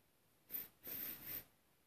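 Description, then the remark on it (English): A short, hesitant sniff followed by a longer double sniff, breathy nasal intakes from a spring hare emerging from its burrow into the darkening evening, against a quiet background, with no voices. “Another tentative sniff.”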